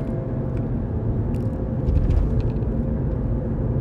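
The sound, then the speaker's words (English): A steady low rumble fills the cabin of a moving car, with road and engine noise droning continuously and a few faint high clicks over it. No one speaks. “but I'm in the car, so you know, it would make sense for the sounds.”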